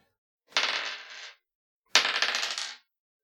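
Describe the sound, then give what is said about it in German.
A die rolled twice in quick succession for an escape roll in a game, each a brief, bright clattering rattle lasting under a second, fairly loud, with a short pause between and no voices. “Ich hätte gerne einen, äh, einen Würfel für Entkommen.”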